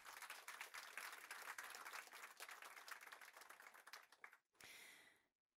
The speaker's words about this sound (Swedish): En applåd för det.